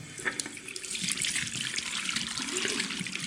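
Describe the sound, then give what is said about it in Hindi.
Water gushes steadily from a bathroom shower turned on at the tap, a constant bright hiss and splash that stays fairly loud for a few seconds, with no voices. “नल खोल के शावर चालू किया”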